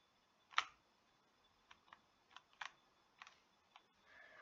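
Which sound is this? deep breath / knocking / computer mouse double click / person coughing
computer mouse double click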